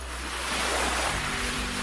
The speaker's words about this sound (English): When you see a city pigeon, imagine where it was intended to be on those rocky cliffs while the sea roils and churns below